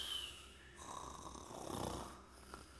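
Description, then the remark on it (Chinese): Three roommates snore in overlapping turns in a men's dormitory at C University at night after lights-out, rough rumbling breaths rising and falling one after another, with no talking. “只能听到三个室友其此彼伏的呼噜声。”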